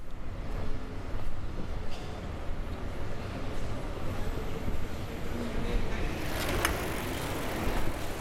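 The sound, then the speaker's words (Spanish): Steady outdoor street ambience on the Gran Vía, closed to traffic, with a low, continuous city rumble, faint voices and occasional soft clicks of someone walking on the asphalt. “Continuamos por la Gran Vía. Está cerrada al tráfico. Camino por el asfalto.”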